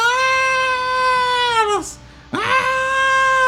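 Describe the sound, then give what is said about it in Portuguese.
A voice imitates a hurt animal's pained cry: a long, loud, steady wail that sags at its end, a brief breath-like gap, then a second wail rising back up, alone. “Vocês ouvem assim, um, um, um barulho de, de reclamação, de como se estivesse machucando.”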